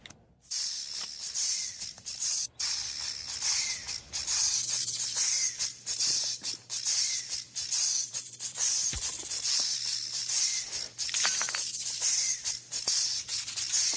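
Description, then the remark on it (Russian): Snake jazz: continuous loud, bright hissing pulsing in a rhythmic pattern like a groove, steady throughout with a faint low hum underneath and no voices. “Стоп, стоп, Морти, ты это слышишь? Зацени. Змеиный джаз.”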